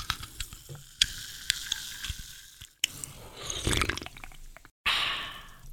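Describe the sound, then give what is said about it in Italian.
A can of Red Bull energy drink being opened: a few sharp clicks and taps, then bursts of bright fizzing hiss that swell, cut off abruptly, and return loudly at the end. No one speaks. “Ora mi devo aprire una lattina di Red Bull perché mi devo riprendere da questo lungo viaggio.”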